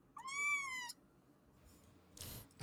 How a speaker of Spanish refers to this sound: Miau. Esto es lo que tengo que decir. La, gata está muy, muy enojada con todo esto.